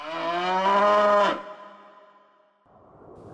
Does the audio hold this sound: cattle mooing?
yes